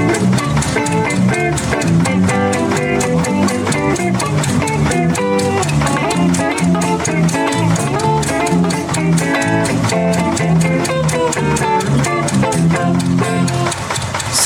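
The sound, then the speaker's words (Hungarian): Loud, full-band intro music plays steadily for about fourteen seconds, with a driving beat, dense harmonic layers and sustained tones, and no one talking over it. “Figyelj, menjen egy intro, és akkor menjen.”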